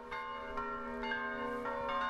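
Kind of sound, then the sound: ambience, church bells ringing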